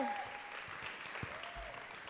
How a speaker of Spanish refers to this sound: Qué increíble momento de alabanza, ¿verdad? Vamos a dar un aplauso a Dios por este tiempo.